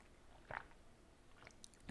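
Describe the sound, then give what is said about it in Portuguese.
Quiet mouth noises of someone sipping tea: a soft slurp early on, faint small sounds, then a sharper, louder sip at the very end. No one speaks. “Só mais um golinho de chá.”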